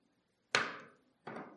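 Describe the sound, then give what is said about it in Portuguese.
Two sharp hammer strikes from a small hammer, the first loud with a ringing decay, the second following about three-quarters of a second later, with no talking. “trouxe um martelinho aqui.”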